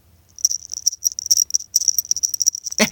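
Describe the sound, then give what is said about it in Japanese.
A small bell on a beckoning cat figurine jingles rapidly and repeatedly for a few seconds, a bright tinkling shimmer, ending with a brief rustling clunk. “あの招き猫ちゃんの鈴の音でしたということなんですけどもね、この招き猫ちゃんがですね、目がね、ニターっとしててね、あの、とても可愛いんですね。”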